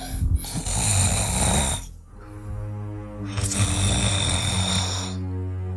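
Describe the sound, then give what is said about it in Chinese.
A male storyteller imitates Zhou Yu's heavy snoring in the tale of Jiang Gan: two long, loud, low-pitched rattling snores separated by a short pause, with no speech around them. “周瑜这呼噜声又起来了”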